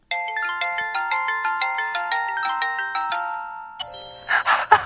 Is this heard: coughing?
no